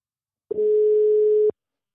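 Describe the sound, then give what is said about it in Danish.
A single steady telephone ringback tone of an outgoing call sounds for about a second, a clear, even electronic hum with abrupt start and stop, heard alone with no talking. “Nu ringer vi i hvert fald til ham, så vi kan komme i gang med dagens afsnit.”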